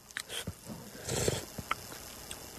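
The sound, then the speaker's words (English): A single wet slurp of chicken orzo soup, a noisy rush of air and liquid lasting about half a second, with a few small spoon or mouth clicks around it and no talking. “One slurp, everybody knows the rules.”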